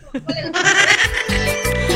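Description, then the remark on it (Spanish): A person loudly imitates a squealing pig giving birth, a high, wavering, nasal cry that starts with a couple of short yelps and then stretches into a sustained, shaky squeal. “Ya, ahora como chanchito, hacele llora, chilla como chancho.”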